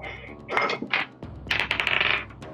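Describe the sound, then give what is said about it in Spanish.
Dice clatter and tumble across a hard tabletop during a role-playing game, in a few quick, rattling bursts, fairly loud, with no voices over them. “Déjame rolear algo a mí.”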